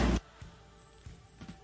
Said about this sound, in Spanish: Quiero que escuche cómo recibieron el 2021 en esa zona del planeta. A ver, fuegos artificiales.